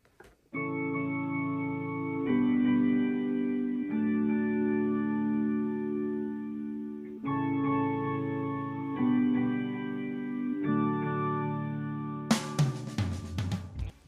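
A pop song recording plays: sustained, effect-laden chords shift every couple of seconds at a steady, fairly loud level, then break into a short burst of noisy, crashing sound at the end.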